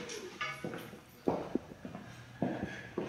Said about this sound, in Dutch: lopen door de winkel